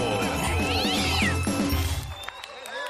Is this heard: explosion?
no